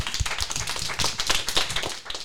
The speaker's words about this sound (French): On peut les applaudir.